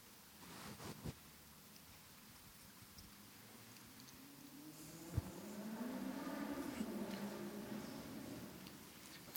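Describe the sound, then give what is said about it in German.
A car drives past, its low engine hum swelling over several seconds and then fading. A few faint clicks come earlier, and nobody speaks. “Ich habe gewusst, dass das Auto durchfährt, darum habe ich gewartet.”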